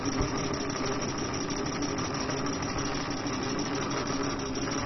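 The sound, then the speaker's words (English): A vibrating cricket, a heavy egg-shaped device set on the side of a cup as liquid is poured in, buzzes in a steady, continuous drone for the whole stretch, an even mechanical whirr with a rough rattly texture and no pauses, heard alone without any talking. “Very distinct, noticeable difference. This cricket is vibrating.”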